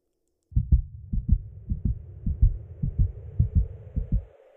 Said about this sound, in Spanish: De inmediato se aceleraron mis latidos.